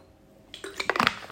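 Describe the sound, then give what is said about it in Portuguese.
Water pours briefly into a container, a splashy, gurgling stream lasting under a second with a few clinking bursts, and no one speaking. “Tenho que ver mais um bocadinho de água.”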